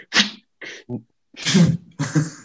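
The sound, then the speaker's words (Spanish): A voice blows a series of short, buzzy raspberry-like bursts, mimicking a trumpet-like fart, with brief pauses between them and the last two bursts longer and louder. “brinco, güey, me agacho, no, no suena, no suena así, güey. Suena ¿Qué rollo? Como trompeta, güey, así.”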